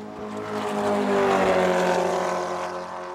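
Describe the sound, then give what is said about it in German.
A 917 race car engine roars loudly and steadily past for a few seconds, its deep, buzzing harmonic drone swelling slightly in the middle with no voices over it. “Der 917, das war eigentlich kein Auto mehr, eher ein Tiefflieger.”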